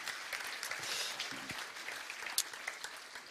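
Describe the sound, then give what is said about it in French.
An audience in Alsace claps steadily to welcome a guest speaker, a director, a dense patter of many hands sustained for a few seconds with no voices over it. “On peut l'applaudir comme on sait le faire en Alsace.”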